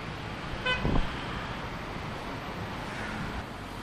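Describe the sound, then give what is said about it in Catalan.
A steady, loud roar of heavy four- and five-axle trucks of around 25 to 30 tonnes rumbling past on a road in Olot, with a brief horn toot early on and no voices. “Passen camions de 4 eixos, de 5 eixos, eh, tranquil·lament, camions que volten les 25-30 tones.”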